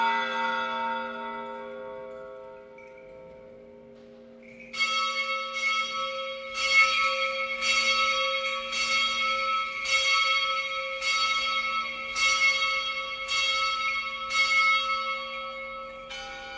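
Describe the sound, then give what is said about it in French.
A bell inside a basilica, rung by Franciscans, tolls with long ringing overtones, then rapid repeated strikes begin around five seconds in, clanging in a steady rhythm that fills the resonant interior, loud, with no talking. “les, franciscains vont sonner sur cette cloche qui, se trouve dans l'intérieur de la basilique.”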